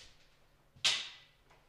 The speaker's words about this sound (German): Äh, jetzt kriege ich das verdammte Mikrofon da nicht aufgesetzt. Jetzt. Nee, immer noch nicht.